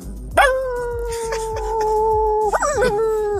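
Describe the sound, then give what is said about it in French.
A woman imitates a dog's drawn-out, wolf-like howl, holding a steady wavering tone for about two seconds before it breaks and trails off, fairly loud over low background hum. “Quand t'es dans la forêt, tu peux entendre des chiens aussi.”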